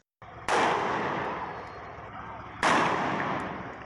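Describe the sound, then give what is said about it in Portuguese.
Two loud gunshots fired by police at a captured bull ring out about two seconds apart, each a sharp crack with a long echoing decay, heard outdoors with no talking over them. “De repente, tiros são disparados pela polícia.”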